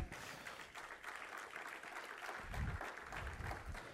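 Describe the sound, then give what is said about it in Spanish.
An audience applauds together, giving applause to Christ, a steady wash of many hands clapping for several seconds, with a few low thumps and scattered voices mixed in. “¿Cuántos le pueden dar un aplauso a Cristo?”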